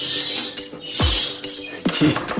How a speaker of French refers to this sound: J'ai cuisiné là, j'ai eu euh, une étoile avec ce fourneau hein. et il y avait ce bruit chaque fois qu'on ouvrait la porte